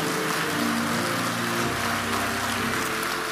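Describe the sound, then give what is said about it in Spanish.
A crowd applauds loudly and steadily for the name of Jesus, a dense wash of clapping like heavy rain, with sustained musical tones underneath and no break for the full length. “Denle un aplauso fuerte al nombre de Jesús.”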